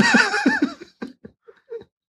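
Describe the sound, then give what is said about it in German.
A donkey brays loudly with a harsh, wavering call, then trails off into a few short, breathy gasps with brief pauses between them. “Ägypten. Esel. Kamele.”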